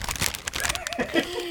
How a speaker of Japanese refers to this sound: あったかいですねこの紙袋の音皆さん聞こえますか